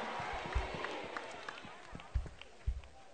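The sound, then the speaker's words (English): An audience claps in a dense, steady patter that fills the whole clip, with a few louder thumps standing out now and then and a faint murmur of voices underneath. “You can clap better than that.”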